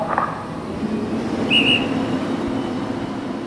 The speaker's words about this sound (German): Und da hat man es eben auch schon gehört bei diesem Marinezeremoniell, das ist das sogenannte Front- und Seitepfeifen und das galt Flottillenadmiral Axel Schulz, das ist der Kommandeur der Einsatzflottille 2.